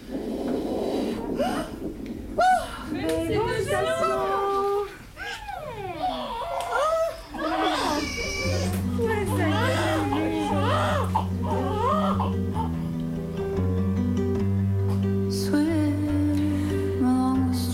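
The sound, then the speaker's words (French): A childbirth recording: a newborn baby cries in loud, rising and falling wails; partway through, steady music fades in beneath the crying and carries on to the end. “Alors j'ai mis ce petit son d'accouchement et puis un peu de ….”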